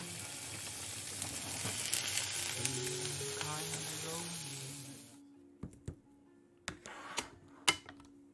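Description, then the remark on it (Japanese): Food sizzles steadily and loudly in a pot while a nabe hot pot dish is cooked, for about five seconds, then the hiss cuts off, leaving quieter background sound broken by several sharp clicks and taps. “今回は鍋料理をし”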